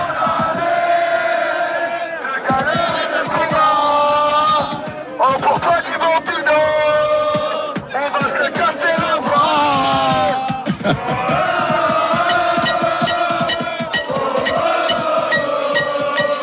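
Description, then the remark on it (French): A loud crowd of rugby supporters in a stadium chants together in unison, sustained sung phrases rising and falling with rhythmic surges, continuous for the whole stretch with no pause. “Incroyable ambiance donc euh, mise par les, supporters de Timo Pino.”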